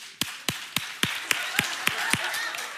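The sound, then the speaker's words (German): An audience claps in unison in answer to a question from the stage, about ten sharp, evenly spaced claps in a quick steady beat, ringing out over a low background murmur of the crowd. “Einmal klatschen, wer nicht weiß, warum hier die Dose steht.”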